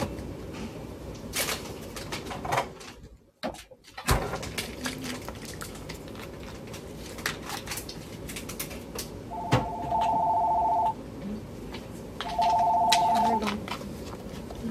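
A telephone rings twice, each ring a steady electronic trill lasting over a second with a short pause between, heard over quiet ambience with faint scattered background noises.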